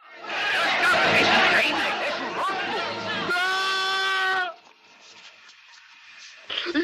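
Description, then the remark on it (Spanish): In a film scene, a loud, dense crowd at a London station shouts and jeers at Merrick, then one sustained high-pitched yell cuts through before the commotion drops off to a quieter background murmur. “cuando consigue llegar Merrick a la estación de, Londres, eh, la gente le abuchea, eh, le empiezan a perseguir, a gritar.”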